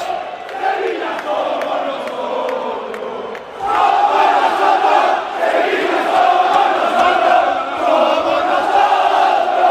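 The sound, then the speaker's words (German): A large stadium crowd of FC Sevilla football fans jeers their team after a 0-4 Champions League home loss to Manchester City, with loud sustained booing and shrill whistles, a dense continuous roar that swells even louder partway through and holds steady to the end. “Die Mannschaft kommt in die Kurve und wird ausgepfiffen und niedergebuht.”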